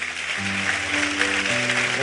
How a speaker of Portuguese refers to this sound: Dê uma salva de palmas para o Senhor, porque Ele é maravilhoso.